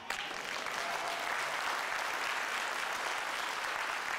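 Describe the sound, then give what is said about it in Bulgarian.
An audience claps steadily throughout, a dense, continuous wash of many hands with no break in the applause. No one speaks over it. “О, ако ръкопляскаш, ръкопляскай, като че си навярваш.”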